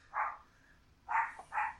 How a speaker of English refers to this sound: is my dog giving his opinions on Slumber Party Massacre.